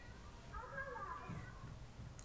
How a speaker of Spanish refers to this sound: Ha sonado un gato súper fuerte ahora mismo.